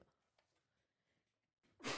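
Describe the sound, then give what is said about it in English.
After a stretch of near silence, someone lets out one abrupt, explosive sneeze, loud and breathy, right at the very end. “bless you thanks”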